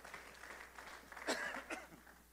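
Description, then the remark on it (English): An audience claps in praise to the Lord in a steady, soft wash of applause, with a couple of brief vocal shouts rising above the clapping toward the end. “Let's give the Lord a hand clap of praise right there.”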